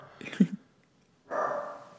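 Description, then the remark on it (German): A dog gives a short bark, then after a brief pause lets out a longer, rougher, noisier sound. No one is talking. “wenn es richtig ist, bellt dreimal.”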